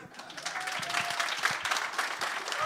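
A burst of audience applause for a story just told, dense steady clapping from many hands that swells slightly toward the end, with no one talking over it.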